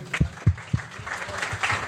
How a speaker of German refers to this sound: Dass es jetzt soweit war und am Wochenende du dein erstes Saisontor geschossen hast. Wir müssen es jetzt zumindest mal kurz ansprechen. Vielleicht einen ganz kurzen Applaus. Ganz auch. kurz, aber ganz kurz.